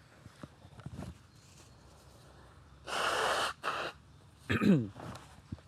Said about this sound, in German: Sorry, ich muss mir kurz die Nase putzen.